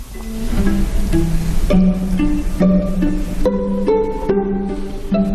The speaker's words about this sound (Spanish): Y tenemos una obra muy, una monada, que es un dueto para violín y violonchelo que compuso a los nueve años, que suena así.